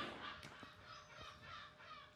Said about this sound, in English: the seagull outside seems to agree with me.